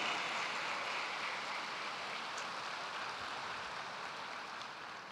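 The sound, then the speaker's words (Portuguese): A church audience applauding Jesus during a sermon, a dense, even wash of clapping that holds for about five seconds and tapers slightly at the end, with no voices over it. “Aplauda a Jesus por isso, aleluia.”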